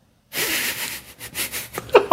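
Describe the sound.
A voice imitates the sleepy snoring breaths of a man who had come home and fallen asleep: a run of airy, hissing exhales pulsing in an uneven rhythm, ending with a couple of brief voiced, nasal snorts.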